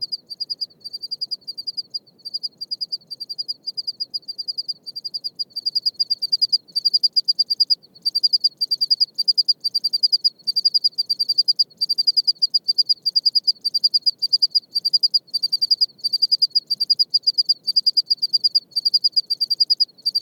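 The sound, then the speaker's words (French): Two desert crickets, hidden under large rocks among a group of five or six, chirp in steady alternation, recorded on two microphones, their high, rapid pulses trading back and forth in a regular rhythm over faint low background noise, in a light breeze at 19°C, with no voices. “Et actuellement, sur les deux microphones qui sont installés, on, on entend deux individus bien en rythme, chacun à leur tour.”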